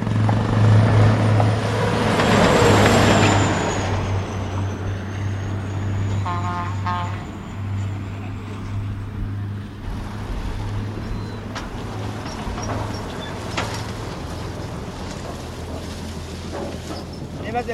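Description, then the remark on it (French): A freight train hauling wagons of sugarcane rumbles past, the third train to pass that day, a loud, steady low engine drone with clanking and rattling over it that eases slightly midway, while voices murmur faintly underneath. “C'est les, les, wagons qui transportent la canne. Il y en a combien qui passent chaque jour Combien de ça passe chaque jour Ça fait, trois trains qui passent.”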